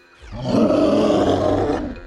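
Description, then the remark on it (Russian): A single deep, throaty roar from a monstrous black two-headed dog, called the elder brother of Cerberus, standing in a doorway. The roar swells up and holds for over a second before fading, loud and rough with a growling low end and no voices. “Да, чудовищный двуглавый пес, старший брат Цербера.”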